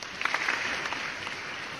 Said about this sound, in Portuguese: Cara, ó, eu vou dar palmas pro roteiro.